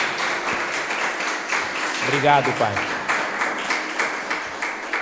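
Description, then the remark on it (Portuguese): A crowd claps steadily throughout, a dense, continuous patter of many hands applauding Almighty God after a prayer, while a man speaks briefly over the applause in the middle. “Dê um aplauso ao nosso Deus Todo-Poderoso.”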